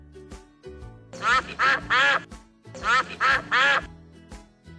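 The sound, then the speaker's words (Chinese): Ducklings quack in two quick bursts of three nasal, raspy quacks each, loud and evenly spaced, over a soft, low musical background. “我想小鸭子们在说谢谢呢。”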